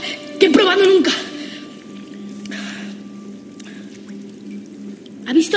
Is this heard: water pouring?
yes